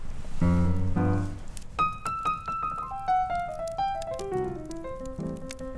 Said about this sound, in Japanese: 今日はねもうちょっと焚き火を楽しみましょうか、うん、ね